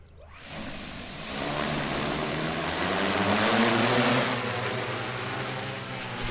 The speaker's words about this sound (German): In Thüringen sind wir der ganzen Sache schon relativ nahe. Da werden zurzeit nämlich Zeitungsdrohnen getestet.